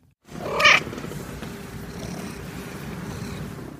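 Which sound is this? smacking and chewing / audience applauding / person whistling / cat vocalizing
cat vocalizing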